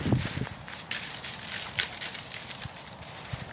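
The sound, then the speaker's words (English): Leaves and twigs rustle and crackle within bushes in an irregular, continuous stir, with a few sharper snaps and soft low thumps, like something moving through undergrowth. “I hear a rustling within the bushes.”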